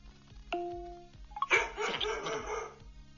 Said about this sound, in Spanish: Muy bien. Aquí tienes ladridos de perro. Pídeme un ladrido Navidad. O di sorpréndeme.